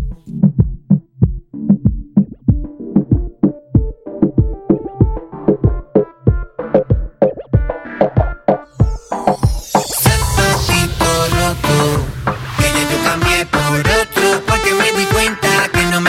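A reggaeton song starts with a sparse, steady thumping beat like a heartbeat, then bursts into a loud, dense full arrangement about halfway through. No talking over it.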